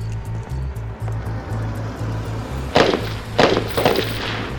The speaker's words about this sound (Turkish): Sirkeci arabalı vapur iskelesinin önüne geldiğimde duydum silah seslerini. Atatürk anıtına birkaç yüz metre kala. Üç patlama ardı ardına üç kez yırttı gecenin sessizliğini.